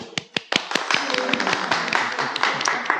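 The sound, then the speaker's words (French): A small group applauds to welcome a visiting family, parents with their two young sons, starting with a few separate claps that quickly build into steady, dense clapping lasting a few seconds. “que nous, que nous euh, applaudissons avec leur venue.”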